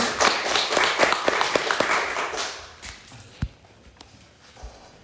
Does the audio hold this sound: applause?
yes